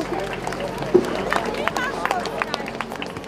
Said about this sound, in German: Und diesen Applaus gerade gibt es für die letzten Lebensmittel, denn wir haben heute gar nicht alles verbraucht, obwohl wir tausend Leute ja, die Bäuche voll gemacht haben, sondern werden sie jetzt gerade alle rausgetragen und nochmal verteilt.